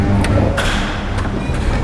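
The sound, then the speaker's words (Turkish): An automatic door release clicks open the closed iron front door of an apartment building after a doorbell is rung: a few sharp metallic clicks and knocks spaced irregularly over a steady low background hum. “Kısa bir beklemenin ardından otomatiğin sesi duyuldu.”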